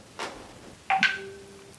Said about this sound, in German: Ich habe eine SMS bekommen.